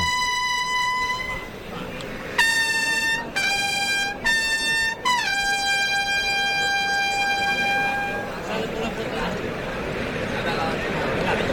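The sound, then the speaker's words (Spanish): At the Maestranza bullring, as electric lighting illuminates the ring, a bright bugle call announces the sixth and last bull of the afternoon over a steady crowd murmur: one held note, a quick run of short choppy blasts, then a long sustained note that fades out. “Larines para que salga el último toro.”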